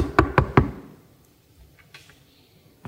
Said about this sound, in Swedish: Det knackar en gång till. Jag... Eh, jag... Eh, Var knackade, knackade på dörren.